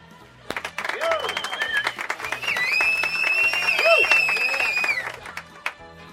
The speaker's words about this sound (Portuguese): A concretização do filme, o primeiro que esperamos ser uma longa série de sucessos, não seria possível sem o entusiasmo e a dedicação de nosso elenco, que agora chamamos ao palco para seu justo e merecido aplauso.